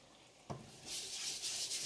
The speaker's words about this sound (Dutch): Dus terwijl die kip nou aan één kant staat te braden, was ik die, eh, die snijplank van die kip maar meteen even af.